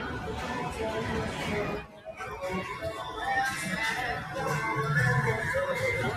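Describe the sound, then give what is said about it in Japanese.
Dense, continuous city street ambience in Tokyo, Japan: overlapping crowd chatter and general traffic hum fill the scene, with a brief dip in the noise before the busy murmur of many voices swells back. “都会でしょめちゃめちゃ音がすごい。ごめんなさい。ほんと雑音だらけな気がする。”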